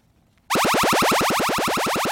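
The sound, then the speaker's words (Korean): A loud, rapid string of electronic alien laser-attack zaps, a sound effect played as the treasure-hunt sound on a Korean radio show, each a sharp pitch sweep repeating about eight times a second, starting abruptly after a moment of silence and continuing steadily without any voices. “외계인 공격 소리입니다.”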